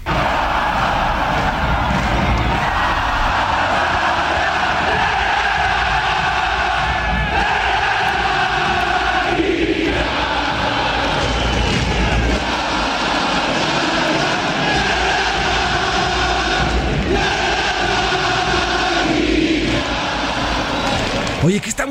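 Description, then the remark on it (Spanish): A huge crowd of fans in the Tigres stadium chants player Guiñac's name in unison, a loud, continuous sung chant that repeats its melodic phrase about every ten seconds, echoing across the stands. “E, e, es, una porra, un tifo, como le, conocen en, eh, allá en Europa.”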